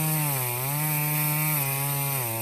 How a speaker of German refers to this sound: Das ist doch. Das ist doch eine Kettensäge, sag mal. Das gibt's ja nicht. Das gibt's ja gar nicht.